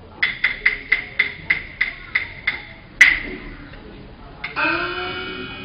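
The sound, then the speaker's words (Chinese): A quick, steady run of about ten sharp, ringing knocks on a door, then one louder bang after a short pause. A voice starts up near the end. “耳听叩门声，想是富婆回，待我开门。”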